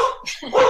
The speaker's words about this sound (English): Yes, and uh, pardon the dog barking.